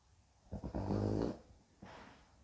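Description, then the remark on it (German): A dog lets out a throaty grunt lasting nearly a second, followed by a shorter, softer snort a moment later, with no one talking. “Mein Hund kommentiert das mit einem Ja”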